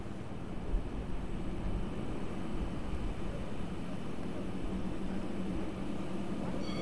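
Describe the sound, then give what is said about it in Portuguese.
Quiet, empty street at night on Rua Cor-de-Rosa in Lisbon, Portugal, just a steady low hum of traffic and machinery with a faint hiss, no voices and no distinct events standing out. “Na Rua Cor-de-Rosa, como assim é conhecida, era este o som que ouvíamos há três meses.”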